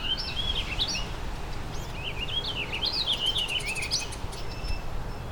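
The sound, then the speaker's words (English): A warbling vireo sings a rambling, run-on warble of high, slurred notes in repeated bursts, over a steady low rumble of background noise, with no one talking. “Took two warbling vireos and the Tennessee warbler.”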